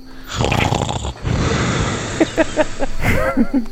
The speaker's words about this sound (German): hat eine, hat, hat, der hat, hat sich quasi mehr oder weniger selbst aus seiner Rüstung geschält, die da irgendwo in der Ecke liegt und hat schon eine, eine Pfote über den Augen und äh, schnarcht.